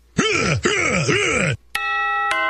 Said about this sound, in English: Oh, yeah. Listen to that bell.